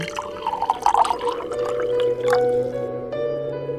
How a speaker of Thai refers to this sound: เขาตะโกนไปข้างหลังบอกว่าให้ช่วยรินเหล้าให้หน่อย